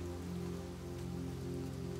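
A light, steady rain shower patters on the leaves of forest trees, a soft continuous tapping with no break, heard alone with no voices.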